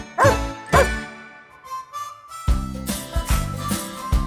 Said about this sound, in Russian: О, мой пес Алтай тоже рад вас приветствовать.